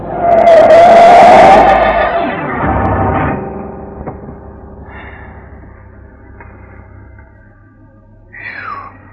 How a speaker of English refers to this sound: He moved the car up close, next to mine, and yelled something angry kids yell, and suddenly his yellow coupe shot out ahead and cut into me.